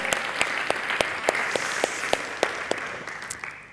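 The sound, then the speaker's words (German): A crowd applauds steadily to thank the Dream Team, a dense wash of many hands clapping with a few sharper individual claps standing out, sustained for several seconds before tapering slightly. “Ich will euch einen riesen Applaus geben, sagt danke, Dream Team.”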